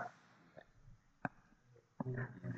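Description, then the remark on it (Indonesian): A person makes a low, rough mooing sound with their voice, imitating a cow, with a sharp click partway through and a longer, louder moo at the end. “Sapi ya ngono sapi.”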